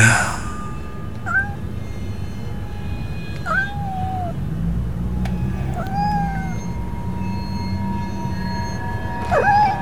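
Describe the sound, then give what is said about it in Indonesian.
A black cat meows four times at irregular intervals, each call a drawn-out, bending whine, heard over a steady low rumbling background. “Dan ketika aku sentari lagi, jelas itu seekor kucing berwarna hitam.”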